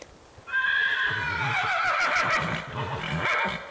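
A horse roaming free neighs loudly, a long, wavering whinny of about three seconds that starts abruptly and trembles throughout, with faint low rumbling underneath and no talking.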